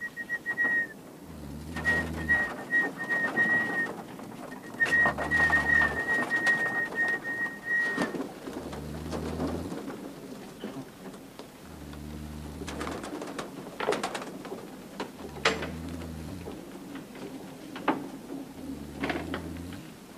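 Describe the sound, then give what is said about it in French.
Pigeons coo in low, throaty phrases repeating every few seconds, with a thin high whistle running through the first half and faint birdsong in the background. “pour eux, le pilon, c'est leur pigeonnier. Puis ils reviennent pour manger.”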